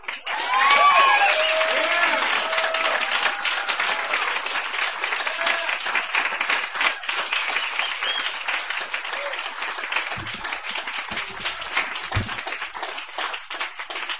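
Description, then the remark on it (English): Sustained audience applause, a dense wash of many hands clapping steadily for the whole stretch, with whoops and cheers rising over it near the start before settling into a steady ovation. “Give him a hand. Keep it going.”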